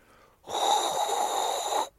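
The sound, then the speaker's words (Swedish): A person imitates the high electric whine a Formula 1 car makes in energy-recharging mode: a single steady, breathy high-pitched tone held for about a second and a half, fairly loud, with no talking. “Så det är så det fungerar helt enkelt och det är rätt så bra att man kan notera det där bakifrån och vi som tittar kan också se då när bilarna går i så kallad upp, uppladdningsläge eller vad ska jag det då.”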